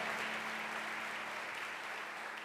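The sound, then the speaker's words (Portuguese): A crowd claps together in sustained, dense applause for Jesus at a preacher's call during a sermon, a steady wash of many hands at fairly strong volume without pause, with a low hum underneath. “Quem está me entendendo, dá uma salva de palmas para Jesus.”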